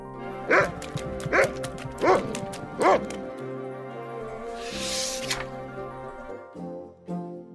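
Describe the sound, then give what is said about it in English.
A dog barks four times in a quick, steady rhythm, loud, followed by a brief noisy rush and a few softer yelping sounds, as the dog is chased by a bigger dog. “was being chased by a bigger dog.”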